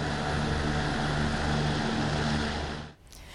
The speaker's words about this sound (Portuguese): Helicópteros sobrevoam as regiões mais atingidas em busca de pessoas que ficaram isoladas.